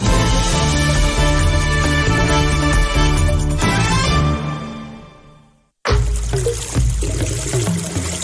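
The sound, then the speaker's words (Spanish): Water runs from a tap in a steady, fairly loud stream, starting abruptly after a short silence that follows music fading out. “Haz un uso responsable del agua. En la ducha, en el lavabo, en el jardín. Cierra el grifo.”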